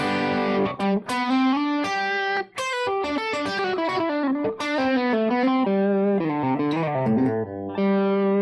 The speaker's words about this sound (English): You know, if you know your bar chords, I'm putting my middle finger down for major and I'm taking the middle finger off to create the sound. But if you really listen to it, it just, it, you know, major.